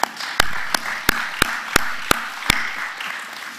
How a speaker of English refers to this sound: So let's give them a begrudging round of applause.